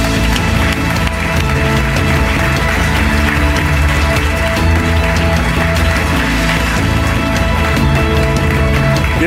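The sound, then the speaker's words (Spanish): Steady, dense audience applause welcoming a publicist introduced as a guest, many hands clapping at once for the full stretch, loud and even throughout, with what sounds like music playing underneath and no talking. “Un aplauso para él.”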